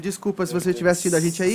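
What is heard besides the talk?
can being opened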